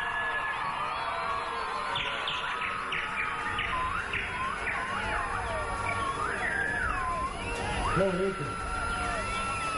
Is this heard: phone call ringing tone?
no